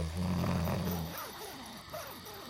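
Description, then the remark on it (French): One loud, rasping snore from a sleeping person lasting about a second, followed by quieter, indistinct talking in the background. “Je lui fais une déclaration plus que larmoyante et la meuf elle me ronfle à la gueule, super.”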